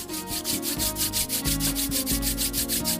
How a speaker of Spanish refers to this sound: Ahora antes de abrir los ojos, frote sus manos.